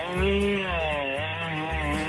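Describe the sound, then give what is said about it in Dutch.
A chainsaw engine snarls steadily, its revs rising and dipping in pulses, sounding thin and band-limited as it comes through a caller's telephone line on a radio call-in show. “Met nou, ik gewoon een kettingzaag aan de lijn.”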